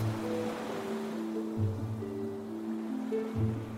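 A steady wash of ocean waves breaking at a beach rolls on continuously at a moderate level, with low sustained tones humming underneath and no voices.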